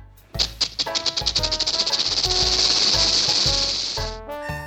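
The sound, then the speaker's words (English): A snake swaying by hisses in a long, loud, breathy stream that begins with a quick burst of rattling pulses, lasting about four seconds over light background music. “A snake sways by.”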